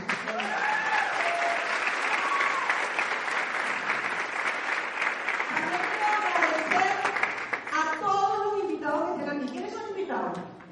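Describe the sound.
Sustained, dense audience applause at steady loudness, called for in honour of Jeff García of the Global League Internacional, with a voice beginning to speak over the clapping near the end as it continues.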